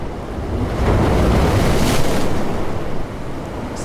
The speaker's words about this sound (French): ça, c'est une vague.